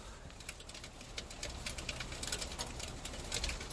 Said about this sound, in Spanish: Eso es el granizo golpeando en la chimenea de, de, aquí, de donde estoy.